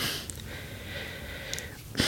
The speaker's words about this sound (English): i'm out of breath already I'm working on it. But uh, as I get better, I won't be at as bad. I, I can tell you guys hear me breathing all the time, and I'm sorry. I'll get better at it.